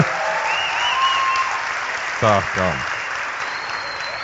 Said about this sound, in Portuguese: Deixa o aplauso pro final, por favor.